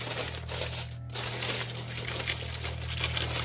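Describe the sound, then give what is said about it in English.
Aluminum foil laid over parchment paper being scrunched and squeezed all around to seal it, a dense, continuous crackling and crinkling with one brief pause, over a low steady hum. “Scrunch it all around and try to seal really well. So I'm going around and I'm squeezing.”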